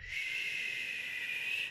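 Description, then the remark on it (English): A single deep inhale, taken as part of a mindful breathing exercise, drawn in steadily for nearly two seconds, airy and hissing, with no talking around it. “Inhale,”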